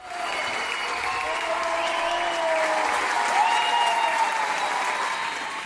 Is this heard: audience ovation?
yes